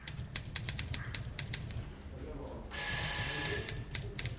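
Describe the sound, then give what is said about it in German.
Rapid clattering of typewriter keys fills an office of the Deutsche Bundespost telecommunications office in Germany, a steady stream of sharp clicks over a low rumble, joined near the end by a bright ringing tone. “Dort war das Klappern der Schreibmaschinen ein abstraktes Hintergrundgeräusch, das nichts mit Wörtern oder Sprache zu tun hatte, sondern nur Teil des Büros war.”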